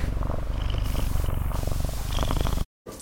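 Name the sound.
cat purring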